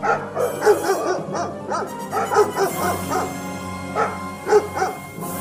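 Several dogs bark in quick, overlapping bursts, a few yips and whimpery notes mixed in, steady throughout with no one speaking.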